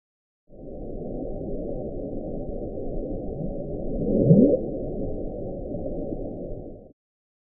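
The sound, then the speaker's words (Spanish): A low, muffled underwater rumble, like the Bloop ocean recording, runs steadily for several seconds, with one brief louder upward-sweeping moan rising out of the noise near the end. No voices. “Daba la impresión de que fuera Pareció burbuja. Una, burbuja gigante.”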